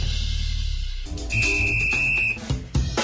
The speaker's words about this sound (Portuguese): Tem apito porque tem Brasileirão chegando à sua última rodada e a definição final sobre os rebaixados e quem vai para a Libertadores pode chegar no último minuto.